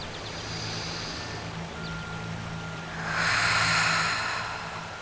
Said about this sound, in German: Und er fängt an zu schnaufen.